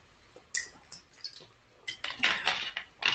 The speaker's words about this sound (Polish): Jak pracy... ty, jak ty pijesz wodę, to ja może wykorzystam e, tą chwilę.